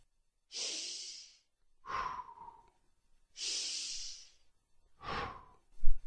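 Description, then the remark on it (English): Two slow, deep breath cycles, each a hissy inhale through the nose followed by a softer, lower exhale through the mouth, fairly quiet with brief pauses between, ending on a small puff. “Take deep breaths in through your nose and out through your mouth.”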